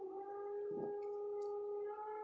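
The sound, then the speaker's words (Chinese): Construction noise from building work upstairs: a steady, droning mechanical whine like a power drill, holding one pitch throughout, with a brief rougher grinding burst partway through. No one speaks. “哦，楼上在施工，有那个声音啊。”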